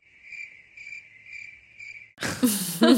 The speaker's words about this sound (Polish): Świerszcze.